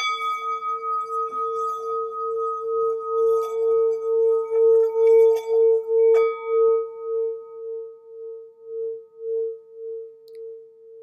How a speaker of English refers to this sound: I wanted to take this opportunity to recenter into the episode and play with my singing bowl a little bit. So if you'd like to focus on your breath while I do this.